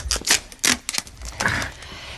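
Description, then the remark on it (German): A key stuck to the inside of a dresser door being peeled off and handled: a few sharp clicks and scraping rustles in quick, uneven bursts, with no one speaking. “Ja, an der Innentür, da, da klebt wieder ein Schlüssel.”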